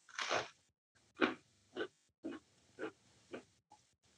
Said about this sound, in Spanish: Entonces le das un bocadito a la tostada de queso con, con, con la mermelada y un traguito de founder. Hay una que es, le voy a dar un bocadito a la tostada